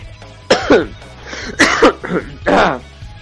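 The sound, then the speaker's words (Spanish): A loud coughing fit: three or four harsh, raspy coughs in quick succession, with throaty breaths between the bursts. “Joder, esta tos.”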